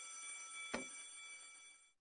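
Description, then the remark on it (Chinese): A school bell rings continuously to start class, a steady metallic clang with bright, sustained tones and a single sharper strike partway through, holding its level before fading slightly. No one speaks. “上课铃声响起”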